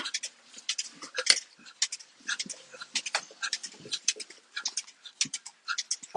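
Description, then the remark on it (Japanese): Milking machine (milker) clusters being attached to a cow for milking, four teat cups one after another: a run of sharp, hissing suction bursts in an uneven, quick rhythm, fairly loud, with no one speaking. “そうしましたら、今度はミルカーといって、えー、牛乳を絞る機械ですね。これをかけていこうと思います。”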